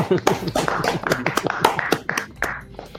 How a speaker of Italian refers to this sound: Per cui in questo momento, prima di partire poi con la diretta e tutto il resto, vorrei mandare un grande abbraccio e dire un grande grazie a, al signor TG Trek dai, facciamogli un applauso.